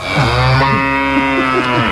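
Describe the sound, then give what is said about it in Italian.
A cow moos loudly, one long drawn-out low call with wavering pitch that fills the whole moment, with no talking over it. “Ah, un piccolo bambino di mucca.”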